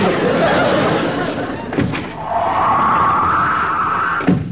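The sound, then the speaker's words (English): A door slams shut with a heavy bang, followed a few seconds later by a second thudding slam, over a steady background of crowd chatter and laughter. “Oh, that door. Every time it slams, the place shakes.”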